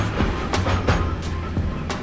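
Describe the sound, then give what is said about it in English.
A train rolls past on railroad tracks, with a loud, steady low rumble and rhythmic clacks of wheels over rail joints repeating about every third of a second. No voices. “one study found that New York public school kids had significantly different reading scores depending on whether they were in a classroom facing busy train tracks”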